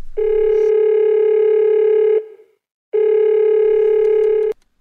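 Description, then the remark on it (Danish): A telephone ringback tone purrs twice as someone calls a woman, each steady electronic ring lasting about two seconds with a short pause between, loud, with no one speaking. “Jeg ringer til hende nu.”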